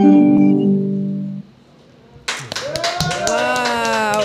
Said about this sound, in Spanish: Déjenme darles un fuerte aplauso.